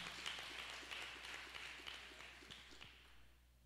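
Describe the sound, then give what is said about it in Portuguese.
A church audience gives Jesus a round of applause, clapping together in a steady, dense patter that continues for a few seconds before tapering off near the end. No one speaks. “Dê um aplauso a Jesus.”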